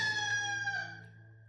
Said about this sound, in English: At that moment, a cock began to crow.